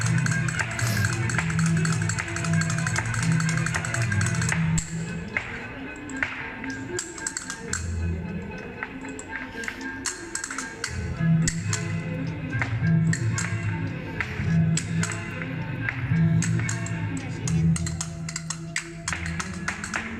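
Rapid, forceful flamenco heel taps strike a wooden board in dense, driving bursts for the full stretch, loud, with a low tonal accompaniment running underneath.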